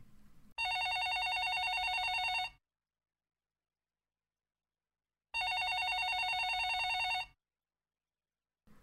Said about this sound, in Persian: غیر از اون صدای دلخراشی که مدام میشنیدیم توی این اتاق جدید صدای یه زنگ تلفن رو هم گاهی متوجه می شدیم. ظاهرا این اتاقی که توش بودیم نزدیک به اتاق رئیس یا یکی از مسئولا بود و صدای زنگ تلفنش تا اتاق ما می اومد. یه صدای زنگ اینطوری